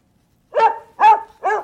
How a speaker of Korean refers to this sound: 개 짖는 소리예요. 팝이든 가요든 이개 짖는 소리가 나오면은 여러분들이 보내주시면 됩니다.